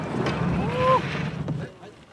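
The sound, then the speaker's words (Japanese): A Nagatoro Line Kudari river boat in Nagatoro, Saitama Prefecture, Japan, coming in toward the gravel riverbank at the end of the 3-kilometre A course, with steady water and wind rush, a brief high squeal near the middle, and a dull knock shortly after, moderately loud. “ザクザクと河原に到着しました長瀞の穏やかな川を船で下る長瀞ライン下り途中流れの速いところもあったり水をかぶったりスリリングでしたよね。”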